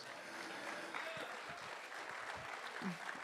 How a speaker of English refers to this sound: Somebody give him a hand clap of praise.